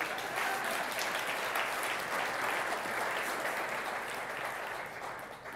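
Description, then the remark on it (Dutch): Steady, sustained applause from an audience, a dense wash of many hands clapping at an even level for several seconds before tapering slightly at the end. “Geef hem een applaus, want hij vindt het niet leuk.”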